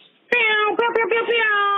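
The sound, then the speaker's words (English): A voice imitates an air horn: one loud, steady, nasal honk held for about a second and a half, briefly stuttering twice in the middle before carrying on at the same pitch. “That was a good airhorn sound.”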